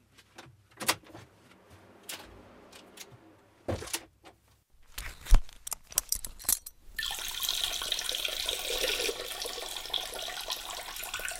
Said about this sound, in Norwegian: Theis ønsker å kvitte seg med væske før han fyller på med mer hellig pils. Han velger seg en bås på toalettet